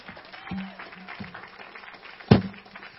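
An audience applauds with a steady wash of overlapping claps at moderate loudness, and one sharper, louder clap stands out near the end.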